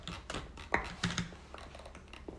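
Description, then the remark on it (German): A computer mouse wheel being scrolled, giving a quick, uneven run of small plastic ticks, fairly quiet, with no one talking. “Das ist einfach das Mausrad.”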